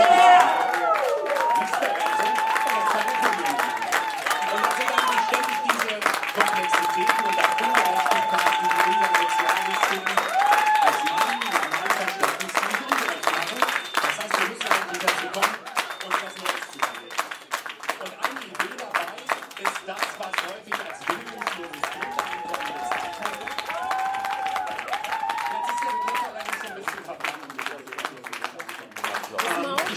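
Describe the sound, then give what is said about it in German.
Counter-demonstrators disrupt an event with loud, sustained applause that fills the whole stretch, dense rapid clapping mixed with voices shouting and calling out over it in an unruly, disruptive din that never lets up. “Also was man, glaube ich, gerade ganz gut hören kann, die Gegendemonstranten haben eine Strategie entwickelt, wie sie diese Veranstaltung stören, vielleicht ohne rauszufliegen, durch lauten Applaus und lauter. Rufe.”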